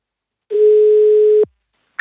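A single steady ringback tone of an outgoing phone call, lasting about a second, sounds clearly and then stops, followed by a brief click. No one speaks.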